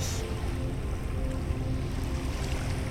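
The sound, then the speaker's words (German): A steady, broad rush of ocean waves fills the scene, heavy with low rumble and constant without pause, fairly loud, with no voices present. “Konzentriere dich auf das Rauschen der Meereswellen und atme in 5, 4, drei, zwei, eins, aus.”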